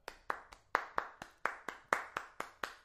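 A single person claps as a gesture of thanks, about a dozen times in a steady, slightly uneven rhythm, each clap a sharp, bright smack with a quick fade, and no one talking.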